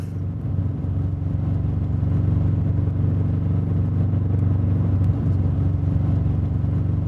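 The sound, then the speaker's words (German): The right rear wheel of a car on a drive to Hinterkaifeck makes an eerie, droning noise: a steady low hum with a faintly tonal, wavering quality that runs loudly and continuously under the engine rumble, with no voices. “Das rechte Hinterrad klingt gespenstisch, gruselig.”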